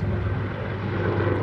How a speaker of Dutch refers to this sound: Dat is de helikopter van Gilze dit toch?